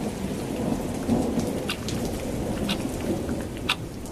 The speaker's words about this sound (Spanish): en medio de una ciudad que da la pelea para no ser derrotada por la agreste lluvia.